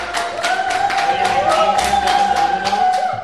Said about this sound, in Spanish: Eh, lo primero, bienvenidos los copenautas y también ese público que, como siempre, se, aplaude así. Así mismo, mismo ese público.